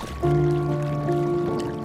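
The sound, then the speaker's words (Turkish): Water trickles and laps steadily beside a small, leaky rented rowboat at sea off Büyükada on an autumn afternoon, a continuous wash with a faint steady hum underneath and no voices. “Hükmünü yitirmiş güneşin altında kiralık bir sandal.”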